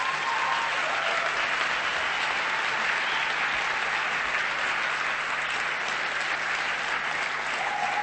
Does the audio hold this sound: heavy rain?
no